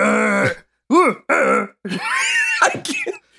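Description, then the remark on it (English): A voice imitates the grunts a man makes right after he gets spit on: a long rough one, then two short arched bursts, then a strained, gravelly groan ending in choppy huffs, all fairly loud with no speech. “grunts that right after he gets spit on?”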